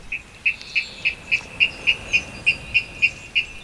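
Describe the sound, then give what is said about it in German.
A water rail's persistent spring courtship call: a steady series of about a dozen sharp, high, ticking notes repeated at an even, fairly quick pace, clear against a quiet background. “Im Frühjahr gibt es dann so ein ausdauerndes anderes Balzgeräusch, das hier.”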